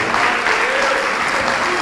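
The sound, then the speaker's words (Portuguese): An audience applauds the name of Jesus steadily, dense overlapping claps filling the room at an even, sustained level from start to finish. “Isso, vamos aplaudir mais ao nome de Jesus.”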